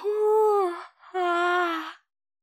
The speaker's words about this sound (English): And like stifles a big yawn.